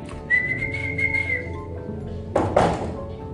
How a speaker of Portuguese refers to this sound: Ah, o meu amigo, passarinho assim, assobiou aí. O que ele quer aqui?